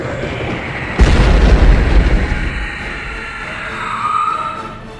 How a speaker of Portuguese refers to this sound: A explosão de energia mata o demônio.